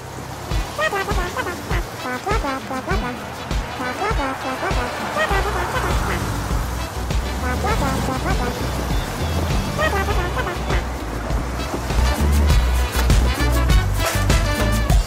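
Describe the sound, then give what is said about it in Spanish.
A ska song plays loud, with a singing voice over a brisk, steady beat and dense band instrumentation running continuously throughout. “es un ska para que lo disfruten y suena así.”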